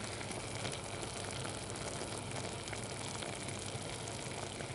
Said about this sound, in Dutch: Ja, mooi. Het pruttelt allemaal. Oh ja. Oh, het is zo mooi, jongen. Oh. Ja, dit is prachtig. Eigenlijk moet je gewoon een half uur alleen dat gepruttel laten alleen, horen. Laten, we doen nog even het gepruttel, even nog een keer.